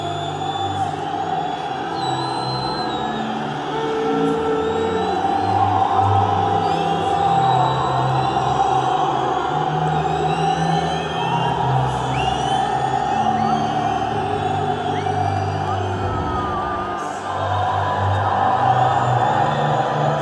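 A huge stadium crowd boos loudly and continuously during the national anthem, God Save the Queen, a dense roar laced with shrill whistles that barely lets up, dipping briefly near the end before surging back.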